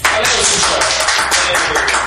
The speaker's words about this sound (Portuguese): Uma salva de palmas, assim.